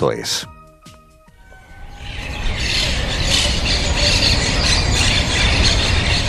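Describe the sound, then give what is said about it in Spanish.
A short squealing, tonal burst opens, then a dense chorus of birds chirping rises and carries on steadily, bright and fairly loud, with many overlapping calls. “Sigamos este sonido de pájaros y, como si de una puerta se tratara, abrir un camino y llegar hasta una casa.”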